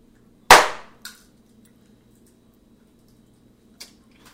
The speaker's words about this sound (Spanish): Poner la onda esa para dar el aplauso y dejar tres segundos para que se te haga más fácil.